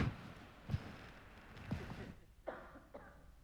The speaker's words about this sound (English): Can you turn my mic off so I can cough?